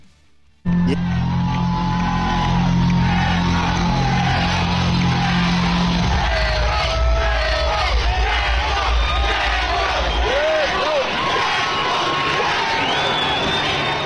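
A large crowd of Formula 1 fans in Las Vegas roars continuously, many voices shouting and cheering for driver Checo (Sergio) Pérez over a steady low rumble, loud and sustained throughout, with occasional higher yells rising out of the din.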